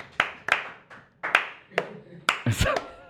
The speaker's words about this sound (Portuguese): Salva de palmas. Salva de palmas.